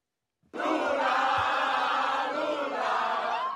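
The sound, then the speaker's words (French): A large crowd in São Paulo, Brazil, cheers and shouts, celebrating Lula's narrow presidential election victory, a loud, dense roar of many voices that bursts in suddenly after a brief silence and holds steady throughout. “Des cris de joie et des fumigènes à Sao Paulo pour fêter la courte victoire de Lula.”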